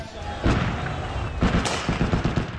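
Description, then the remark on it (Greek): Gunfire and explosions from fighting in Khartoum, Sudan, ring out over constant background rumble: a heavy bang, a second pair of sharp blasts, then a quick irregular string of lighter cracks, fairly loud. “Εκρήξεις, πυροβολισμοί και μάχες μένονται στο Χαρτούμ.”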